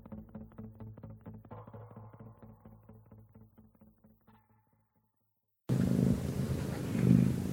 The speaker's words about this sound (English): I hear a cat.